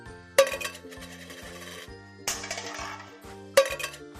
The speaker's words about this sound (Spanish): Recibía con alegría las monedas que la gente le daba, y me gustaba oír cómo sonaban al caer.